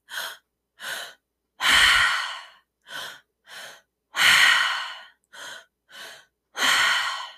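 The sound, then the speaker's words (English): Loud mouth breathing repeated three times as a tri-active breathwork exercise: two quick, sharp inhales, one into the belly and one into the chest, then a long, rushing exhale, all through the mouth, with brief silences between. No one speaks. “We're going to use the tri-active breath into the belly, into the chest, and then out. It happens all through the mouth.”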